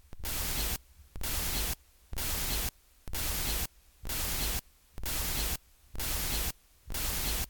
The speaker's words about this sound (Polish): Ponieważ tam jest sam szum, ja teraz zgłośnię mikser, żeby pokazać jak to brzmi.